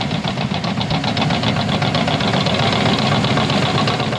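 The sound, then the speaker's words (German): Heavy crawler vehicles and sand trucks work on a huge open area at Kleiner Grasbrook in Hamburg, a deep knocking diesel engine drone with rhythmic pulsing. No one speaks. “Stattdessen fahren schwere Raupen und Sandlaster auf einer riesigen freien Fläche.”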